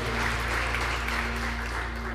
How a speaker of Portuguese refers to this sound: Em nome de Jesus, aplauda o Senhor Jesus bem forte.